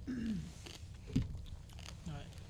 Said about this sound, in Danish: Jeg tror, det der smag knaser i, i, øhm, i blå bånd, det er bacon. Tror du det? Ja, det tror jeg. Det kan ikke være pasta, der ikke er færdig.